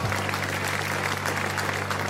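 studio audience applause

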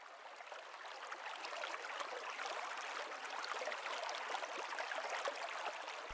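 flowing water

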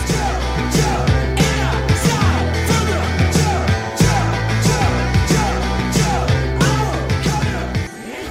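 rock band song playing

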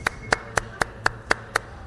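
hands clapping

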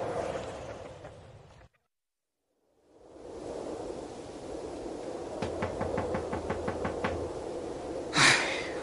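knocking on a door

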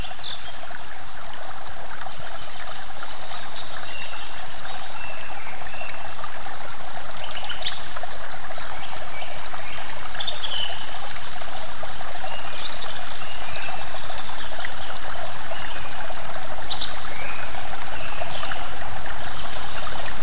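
flowing stream water trickling

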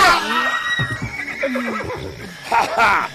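horse whinnying

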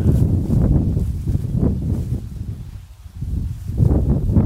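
wind blowing outdoors

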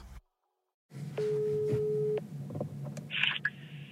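telephone ringing tone

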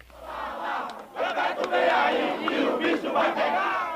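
football fans cheering

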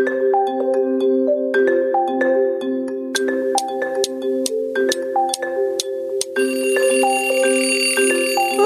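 alarm clock ringing

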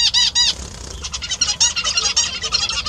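zebra finch song

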